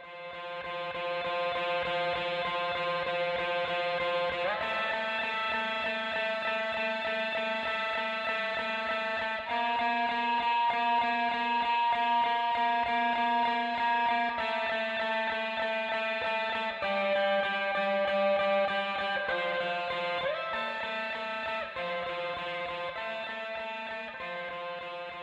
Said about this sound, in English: In the second half of the song, I added an echoey, high pitched guitar part for added texture.